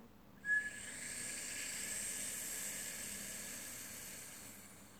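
A single long, airy whistling breath drawn in through the mouth during a breathing exercise, starting with a brief sharper squeak and holding steady for several seconds, soft, with no talking.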